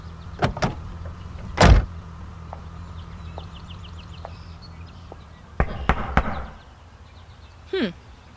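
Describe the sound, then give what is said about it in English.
Sharp knocks on the door of Craig's house, a couple of quick raps and then a heavier thump, followed by a louder burst of several knocks close together. Fairly loud, with a low steady hum underneath. “guess I'll have to knock louder.”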